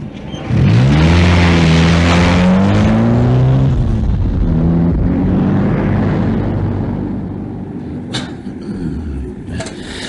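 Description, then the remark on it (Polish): A car engine roars to life and revs hard, its pitch climbing and dropping, then it keeps droning as the car pulls away on a test drive and gradually grows a little quieter. “tak mi się spodobał ten samochód, no, że zapomniałem o próbnej no, jeździe.”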